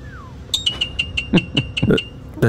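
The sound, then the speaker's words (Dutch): Starlings mimicking other sounds: a short falling whistle, then a quick run of repeated high chirps interwoven with sharp knock-like clicks like someone hammering, fairly loud with no voices. “dat, zijn dus allemaal spreeuwen die we horen.”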